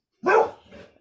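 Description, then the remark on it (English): A dog lets out one sharp, fairly loud bark, trailing off into a softer, muffled grumble. No one speaks. “Oops, I'm sorry about my dog.”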